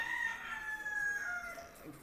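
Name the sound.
rooster crowing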